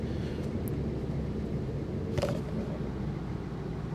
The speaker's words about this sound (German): Ja, es quietscht mit meinem Auto hier vielleicht. Das quietscht immer noch.